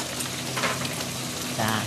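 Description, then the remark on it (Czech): Bacon, garlic and onion frying in a pot, the onion just added, a steady sizzle with dense crackling hiss that swells briefly a couple of times over its short run. “Takže v hrnci už máme teda slaninku, máme tam česnek, teď jsme přidali cibuli”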